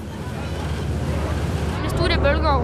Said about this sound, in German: Auf einer kleinen Fähre und natürlich ohne Mama und Papa. Auch an Tagen wie heute, wo die See rau geht und es eisig kalt ist.